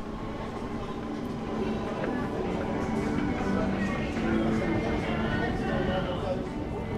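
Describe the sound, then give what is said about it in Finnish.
A steady rumble of a train travelling from London under the English Channel toward France, with a continuous roar and rattling texture that holds evenly throughout, and muffled voices faintly audible in the background. “Täältä Lontoosta lähden seuraavaksi junalla Englannin kanaalin ali kohti presidentinvaaleihin valmistautuvaa Ranskaa.”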